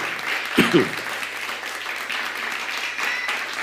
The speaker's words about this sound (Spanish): Dale un fuerte aplauso a todas las naciones que nos ven.